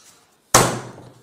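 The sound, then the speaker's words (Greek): A telephone handset is slammed down onto its cradle in one sharp, loud clunk after a moment of near silence, with a brief rattling decay. “γιατί με ρώτησα μας ακούω και κλείνεις το τηλέφωνο, ρε.”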